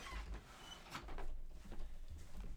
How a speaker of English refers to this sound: Uh, let me open the door.